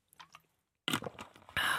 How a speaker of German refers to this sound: nehmen auch mal einen Schluck Wasser, ne? damit die Stimme gut funktioniert.